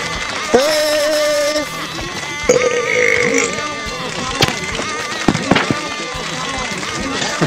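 A goat bleats twice, each cry a loud, quavering call lasting about a second, against a busy, cluttered background with a few sharp pops and knocks.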